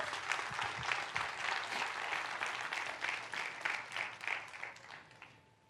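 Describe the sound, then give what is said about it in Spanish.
An audience applauds loudly for God, a dense wash of many hands clapping together that holds steady for several seconds before tapering off toward the end. “Den un fuerte aplauso a Dios.”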